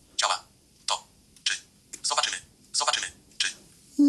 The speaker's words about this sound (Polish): Teraz specjalnie zrobiłem tak mocniej, żeby było słychać, jak to szybko działa właśnie na tej dotykowej klawiaturze, a teraz tak normalnie.